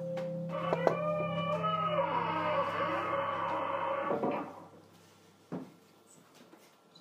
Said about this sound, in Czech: Zavřete dveře